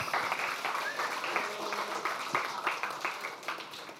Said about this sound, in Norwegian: Tusen takk. Applaus!